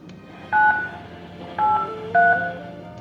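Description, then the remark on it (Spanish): Three distinct keypad tones as someone picks up a telephone and dials a number to call a late-night radio call-in programme, each a short dual-pitched beep spaced unevenly about half a second to a second apart, heard clearly over a faint background hum. “así que descolgó el teléfono y marcó el número.”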